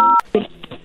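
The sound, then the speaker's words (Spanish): A single short telephone keypad tone, a steady two-pitch beep, sounds briefly and cuts off with a click during a phone call to Hotel Punta Morro's automated line asking for an extension number, followed by a voice talking. “Si conoce el número de extensión, márquelo ahora”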